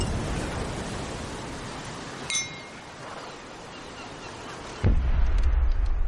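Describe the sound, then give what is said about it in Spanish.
A sudden, heavy explosion boom bursts in near the end and rolls on as a deep, sustained rumble, following a quiet stretch of background hiss and a single bright glassy clink. The explosions come from the direction of a fort, which is left covered in flames. “Al oír unas explosiones, Simón se levanta preocupado y corre en dirección hacia el fuerte.”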